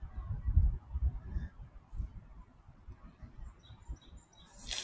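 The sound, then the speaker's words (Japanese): Birds call intermittently over a low, rumbling outdoor background near Makomanai Park, which is surrounded by roads with fairly heavy car traffic, with short honking or chirping cries standing out faintly, and a brief high rush near the end. “なんか鳥が鳴いておりますね。”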